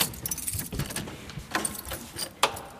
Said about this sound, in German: schließt mir jetzt wieder die Türen auf. Wir gehen nach draußen.